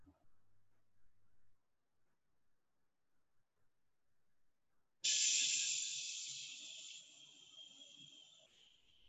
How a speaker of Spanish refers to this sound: el sonido del viento.